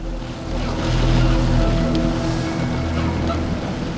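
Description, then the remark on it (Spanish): Furious waves crash and surge against a window in a loud, continuous roar, with a steady low rumble underneath and no voices. “El barco empezó a moverse, a balancearse, y mientras yo luchaba por mantener el equilibrio, observé que la mujer era arrebatada como por una mano invisible, desapareciendo en el vacío y unas furiosas olas golpearon contra la ventana.”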